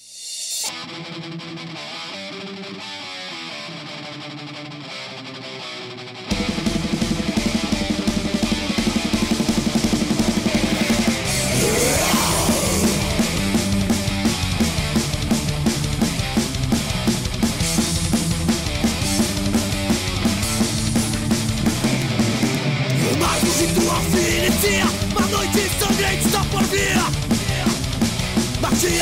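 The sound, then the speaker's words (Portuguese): A rock track played on Cangaço Rádio Rock, the rock radio station of Ceará, with heavily distorted electric guitars, starting with a quieter, thinner intro for about six seconds before the full band crashes in loud and dense, driving steadily to the end. “Vamos ouvir as duas faixas e daqui a pouco voltaremos novamente.”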